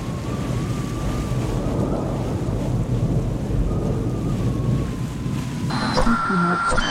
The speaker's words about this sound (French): Nous entrons dans la tempête.